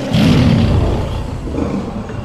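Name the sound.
dinosaur roar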